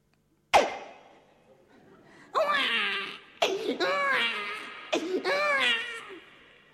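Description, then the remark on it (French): A newborn baby cries in three loud, rising-and-falling wails with short gasping breaks between them, following a brief sharp sound at the start. “Et là, on a entendu la bête qui a poussé son cri.”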